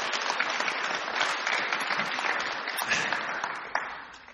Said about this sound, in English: Yeah, let's give them a round of applause.